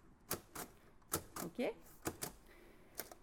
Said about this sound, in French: Donc, ils avaient leur machine. On peut mettre là une feuille. Voilà. On rentre la feuille. On coince la feuille. Et puis après, on peut écrire. Donc, par exemple, on va écrire, euh, allez, lundi. Donc là, je tape en braille.